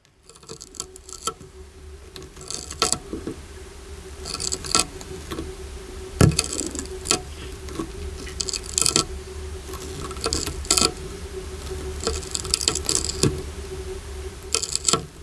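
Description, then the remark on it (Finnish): A grove snail eating: dry, crackly rasping scrapes come in irregular bursts over a steady low hum, with no talking. “Lehtokotilon ruokatunti.”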